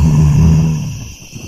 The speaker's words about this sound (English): As monster approached Balarama, it got bigger and bigger. Now monster was very close to Balarama, and he growled again.